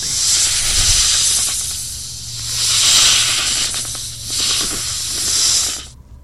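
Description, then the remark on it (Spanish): A loud, breathy snake hiss swells and fades in several long surges, with a faint low hum underneath, cutting off abruptly at the end. “De hacerlo, la princesa se transformará en una serpiente.”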